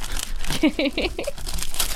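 A wrapped gift being unwrapped on air, with wrapping paper crinkling and tearing in a steady, busy rustle for about two seconds, and a brief voiced sound partway through.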